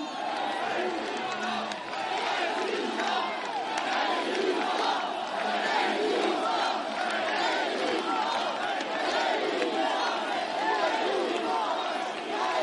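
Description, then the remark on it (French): A large crowd, come from all over France, chants "résistance" in unison, a loud, dense roar of many voices with a steady repeating rhythm that carries on without a break for the whole stretch. “On ne crie pas mon nom. On crie résistance. On crie insoumis.”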